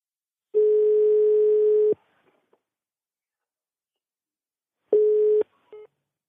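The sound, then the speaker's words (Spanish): A steady telephone dial tone after a dropped call hums loudly for over a second, then silence with a couple of faint clicks, followed by a shorter burst of the same tone and a brief beep. “Es que creo que, se ha cortado.”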